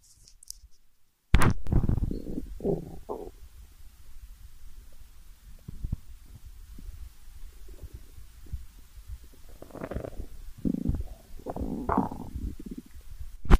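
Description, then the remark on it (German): Gurgling stomach rumbles recorded with a microphone held against a person's upper belly, with low muffled thumps and irregular bubbling bursts over a dull internal hum, growing busier toward the end. “Mikrofon gehen wir jetzt mal in deinen Bauch.”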